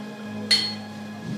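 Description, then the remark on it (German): A single bright clink of beer glasses knocking together in a toast, fairly loud, with a short ringing tail over a steady low background hum. “Ein Prosit der Gemütlichkeit. Anstoßen!”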